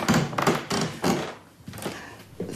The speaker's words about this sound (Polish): Podłoga skrzypi strasznie. Podłoga niestety zdradza każdy ruch.